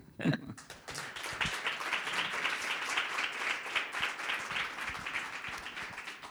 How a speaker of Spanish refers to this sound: Y este aplauso es para ti.